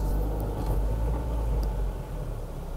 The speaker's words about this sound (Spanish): Voy a parar el carro porque obviamente no puedo leer manejando. Voy a pararlo en un lugar para poder leer esto.